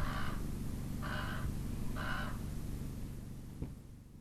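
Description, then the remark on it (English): A raven gives three harsh, evenly spaced caws, about one per second, clear above a steady low rumble of wind or engine noise, overhead in the desert of Red Rock Canyon State Park, California. “I'd rather watch the colors of the desert shift in the sunlight and the ravens soar overhead.”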